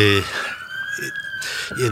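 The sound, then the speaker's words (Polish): A siren wails steadily from the fire station next door, holding a long high tone that rises slightly, with people talking briefly over it at the start and end. “O, kogoś gonią. Tu obok jest e, straż pożarna.”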